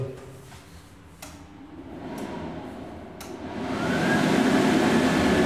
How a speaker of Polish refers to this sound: Ta suszarka przerywa, proszę Państwa, dlatego że jedną ręką trzymam mikrofon, a drugą jestem przy suszarce, trzymam rękę, bo jest fotokomórka.